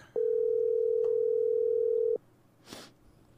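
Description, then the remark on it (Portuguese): A single steady electronic phone ringing tone of an unanswered call sounds loud and clear for about two seconds, then cuts off into quiet background hiss with a brief soft rustle. “ele deve estar longe do telefone”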